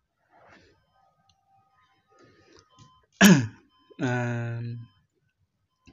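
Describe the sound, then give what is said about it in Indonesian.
A mother in a film scene gives one sharp cough, followed by a drawn-out, raspy voiced sound from the throat, then quiet. “kita masuk ke scene dimana tadi ibunya batuk terus pindah ke kayak rumah sakit”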